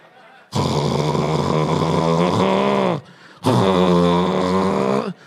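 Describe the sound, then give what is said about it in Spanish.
A person imitates loud snoring that sounds like a revving Harley-Davidson motorcycle engine: two long, rough, rattling snores, the first about two and a half seconds, the second slightly shorter. “¿Dónde están los que roncan como una Harley Davidson?”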